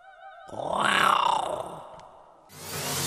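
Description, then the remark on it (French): A tiger lets out one deep, loud roar that swells and then fades over about two seconds, followed by a rush of broad hissing noise. “Ainsi, même encore aujourd'hui, quand parfois souffle l'esprit de la défaite, d'outre-tombe, écoutez, on croit encore l'entendre rugir.”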